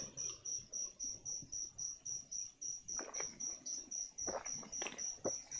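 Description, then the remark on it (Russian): Crickets chirp in a steady, evenly spaced pulsing trill throughout, high-pitched and continuous, with a few soft rustles and faint knocks underneath toward the end. “Вам слышны звуки фона? Ну, типа вот эти сверчки”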